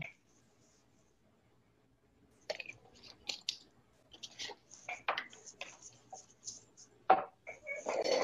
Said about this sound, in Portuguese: Deixa eu só tomar uma água.